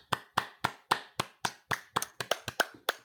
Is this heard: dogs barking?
no